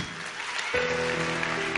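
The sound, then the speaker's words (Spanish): A crowd claps steadily in a dense, continuous wash of applause, with a sustained tonal hum, like music or voices, rising beneath it partway through. “Vamos, fuerte el aplauso.”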